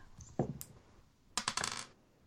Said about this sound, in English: Roll a d20, everybody.